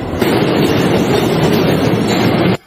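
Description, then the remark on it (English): A New York City subway A train rumbles steadily along the rails as it approaches Chambers Street station in Manhattan, a loud, continuous roar with rattling clatter throughout, before cutting off abruptly at the end. “This time it was a physical fight during Thursday morning's rush hour involving two passengers and one samurai sword on board the A train as it approached Manhattan's Chambers Street station.”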